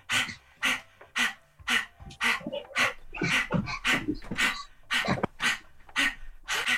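Quick, rhythmic dog-like panting, breathy huffs repeating steadily about once or twice a second, moderately loud with no talking over it.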